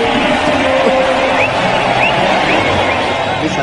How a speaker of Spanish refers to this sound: y se va con el aplauso.